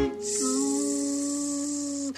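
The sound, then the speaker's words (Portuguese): A mosquito's thin, steady whine holds at one pitch for about two seconds, fairly loud, with no other sounds around it. “Cada minuto é valioso para conhecermos outros ruídos, como o mosquito”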